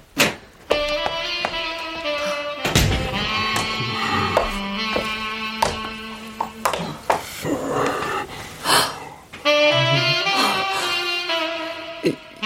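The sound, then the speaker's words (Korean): A man plays a saxophone in a living room, a slow melody of held, breathy notes that shift in pitch, with short pauses and a few airy breaths between phrases, then picks up again near the end. “어느 날 여자가 현관문을 열자 색소폰 소리가 들렸다.”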